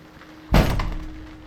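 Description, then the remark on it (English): A heavy storm shutter, which has been banging all night, bangs once, loud, with a quick second knock right after, then a short rumbling decay into a faint background hum. “It's just the storm shutters.”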